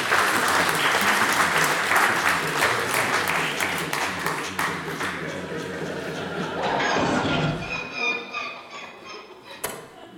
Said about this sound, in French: Vous pouvez les applaudir, elles sont là.